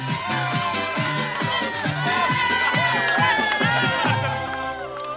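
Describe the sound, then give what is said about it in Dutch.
A dense crowd of roadside supporters at bend 7 cheers and shouts continuously, clapping and jumping, many excited voices overlapping in a loud, sustained roar with rhythmic clapping and chanting running underneath. “Iedereen staat hier te klappen en te springen.”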